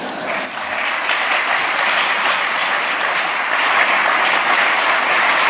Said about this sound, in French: Pourquoi tous ces euh, beaux applaudissements? Bien, il faut se souvenir que M. Nadeau-Dubois avait reçu le prix du gouverneur général pour son livre Tenir tête.